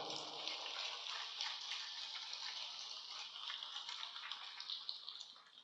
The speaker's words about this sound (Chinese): 掌声比刚才多很多了。谢谢大家。